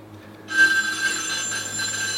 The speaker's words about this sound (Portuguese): achou é o telefone tocando